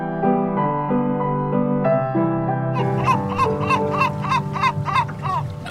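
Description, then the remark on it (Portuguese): A steady, droning musical tone plays, then a seagull starts calling midway through: about ten quick, shrill cries in a rapid, even rhythm, fairly loud over the drone. “Aquela gaivota está-nos a chamar.”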